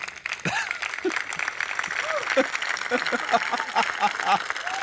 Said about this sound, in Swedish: Ja, men det märks verkligen att förväntningarna på honom där i Almedalen, de är inte skyhöga. För att mm. han får fan applåder för allt.